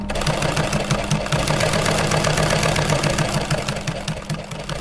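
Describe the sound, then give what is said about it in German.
An old German Adler sewing machine in a sailmaker's workshop runs steadily, its motor humming under a fast, even mechanical clatter that continues without pause for the whole stretch. “That's an old German Adler.”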